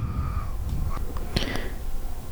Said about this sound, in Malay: Oh Bunyi baby nangis eh